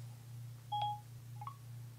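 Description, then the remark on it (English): Electronic phone call-connecting tones as a phone app calls an Aira agent: a clear steady beep, then a quick two-note chirp a moment later, fairly loud over a low constant electrical hum. “Call Aira for free from phone button. Connecting. Calling agent. Connecting.”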